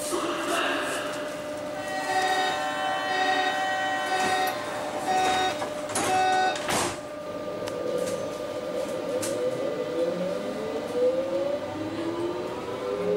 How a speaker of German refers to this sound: So, wir begeben zwar in die U-Bahn.